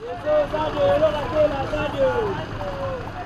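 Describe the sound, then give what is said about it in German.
Heavy rush-hour traffic of cars, buses and trucks rumbles steadily in Kolwezi, Katanga, crawling slowly around a sharp bend, with engines droning and whining, and a faint murmur of voices in the background. “Berufsverkehr in Kolwesi, Autos, Busse, Lastwagen quälen sich langsam um eine scharfe Kurve.”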